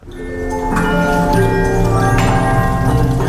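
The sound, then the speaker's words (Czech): Many clocks chime at once in the house in Spillville, Iowa, where Antonín Dvořák spent his 1893 summer holidays, their overlapping bell-like tones ringing loudly and continuously, layered into a dense, sustained wash of sound with no voices. “Dneska jsou všechny tyhle hodiny v domě, kde strávil první americké prázdniny skladatel spisovatel Antonín Dvořák.”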